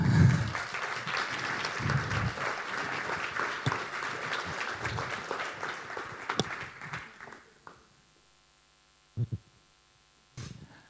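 A crowd applauds steadily for about seven seconds, a dense rattle of many hands that fades out, followed by a few sparse low thumps near the end.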